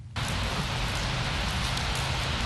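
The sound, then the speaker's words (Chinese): Light drizzling rain that had just stopped begins again in a village after a brief moment of quiet, then holds as a steady, soft hiss with a faint patter of drops. No one speaks. “刚刚停了的雨，此时又淅淅沥沥地下了起来。”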